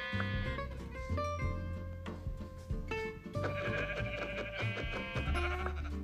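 Repeated bleats of a yellow sheep in a video game, short wavering cries over a steady musical background with low bass tones; no talking, the bleats fairly clear throughout.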